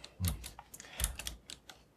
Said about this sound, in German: ich bin noch am Tippen. So, jetzt. Äh, weißt du, ich kann nicht so schnell schreiben und tippen.